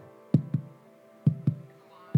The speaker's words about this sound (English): there was a heartbeat. It was faster than that, though. That baby was alive.